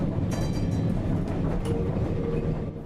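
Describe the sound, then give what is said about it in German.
A tram car of the Kirnitschtalbahn, an excursion tramway running since 1898, rumbles steadily along rails with low, continuous rolling noise, faint metallic rattles and a brief high squeal of wheels; no one speaks. “Die Kirnitschtalbahn ist 1898 als reine Ausflugsbahn auf die Gleise gegangen.”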